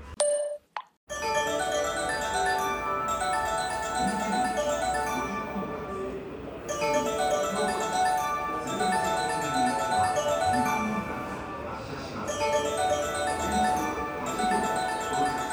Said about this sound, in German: Geht doch mal einer ans Telefon.